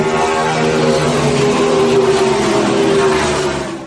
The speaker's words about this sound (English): Abrochamos el cinturón. Ponemos la primera velocidad. Pisamos el acelerador.